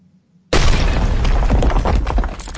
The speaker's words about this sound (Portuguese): Cadê a trovoada, Tiago?